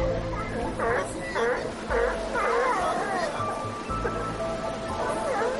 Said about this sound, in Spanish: Lobos marinos adultos marcan territorio y los jóvenes invitan a jugar al agua.